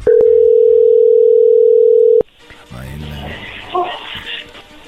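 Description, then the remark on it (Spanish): A loud, steady telephone tone hums for about two seconds as a call is being dialed, then cuts off with a click as faint voices and background noise follow. “A ver, no haga ruido, ahí se está marcando.”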